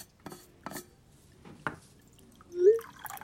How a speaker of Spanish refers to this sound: dale, mientras yo me sirvo café, que todavía tenemos unos minutos.